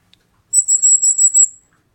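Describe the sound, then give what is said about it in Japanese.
A Japanese tit's alarm call warning that its natural predator, a hawk, has come: a thin, very high-pitched run of about six quick, shimmering notes at roughly 7 to 8 kilohertz, lasting roughly a second, clear against silence. “天敵の鷹が来た時に伝える鳴き声っていうのがあるんですね”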